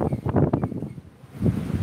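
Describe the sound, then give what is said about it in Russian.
Strong, sudden wind gusts in hot weather, raising dust, roar and buffet the microphone in a rough, low rumble, easing briefly in the middle before surging back up. No voices are heard. “Вот видите, мы о них начали говорить, и на пустом месте жару начался ветер жуткий.”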